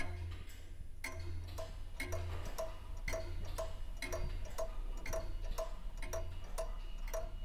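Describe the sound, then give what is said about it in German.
Many clocks in a clock museum tick together, their sharp clicks overlapping in a steady, slightly uneven rhythm over a low constant hum. A bright tone chimes repeatedly through the ticking; nobody speaks. “die Museumswärterin, der ich später ebenfalls die Frage danach stelle, ob die Zeit vielleicht langsamer im Uhrenmuseum vergeht, weil man ihr ja ständig beim Verstreichen zuhört, meint trocken, manchmal zahlt sich's schon.”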